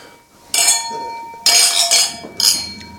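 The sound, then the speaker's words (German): Wine glasses clink together in a toast, three bright chimes spaced about a second apart, each leaving a clear ringing tone that hangs in the air. Fairly loud. “Plopp. Zum Wohl.”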